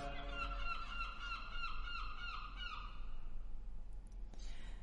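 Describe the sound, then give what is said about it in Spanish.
Seagulls on an island cry out in a rapid series of harsh, squawking calls that overlap for a few seconds, then fade, with a steady low rumble underneath. “Las gaviotas en mi isla.”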